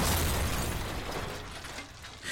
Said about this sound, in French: Un gendarme se rend au niveau de la voiture et voyant que la portière de celle-ci est ouverte, il décide de l'ouvrir. Mauvaise idée. En ouvrant la Renault 12, celle-ci explose.